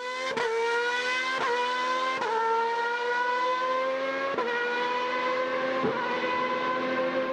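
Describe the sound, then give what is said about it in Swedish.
Formula 1 race cars scream past with a loud, high-pitched engine whine, punctuated by five sharp gear-shift cracks as the pitch sags and climbs again. No one speaks. “Skulle det här vara ett problem alltså i, i Formel 1, på Formel 1-läktaren?”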